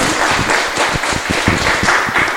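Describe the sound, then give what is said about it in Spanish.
An audience at a panel discussion on children's theatre production claps steadily for a professor, a dense wash of many overlapping handclaps at an even, loud level with individual sharp claps popping through. “Aplausos para el profesor”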